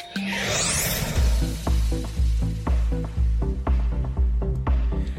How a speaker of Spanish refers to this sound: Oye, me encanta tu cortinilla